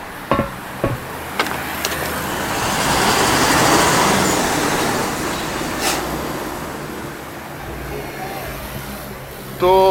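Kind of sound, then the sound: vehicle, city bus engine running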